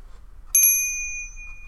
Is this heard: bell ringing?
yes